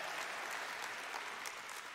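An audience applauds steadily, a dense wash of many hands clapping at an even, sustained loudness throughout, with no voices standing out.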